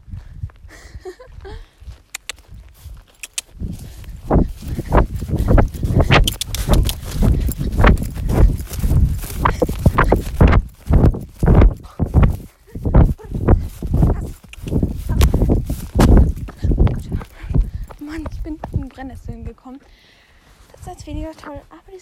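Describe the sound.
Steady clip-clop of a ridden horse's hooves walking on firm ground in an even rhythm during a ride out, with a voice briefly heard near the beginning and again toward the end.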